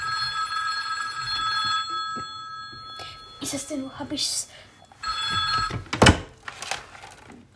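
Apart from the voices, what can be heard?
telephone bell ringing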